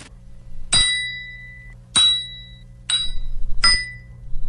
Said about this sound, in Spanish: Eso se supone que es un martillo, obviamente está sonando ahí muy cariñosamente